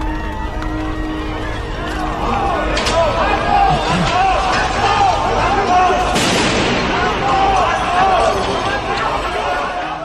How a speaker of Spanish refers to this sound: Las cámaras y las radios que estaban allí pudieron captar ese sonido sobrecogedor de la gente huyendo y arrastrándose despavorida hacia la boca de metro de las Ramblas.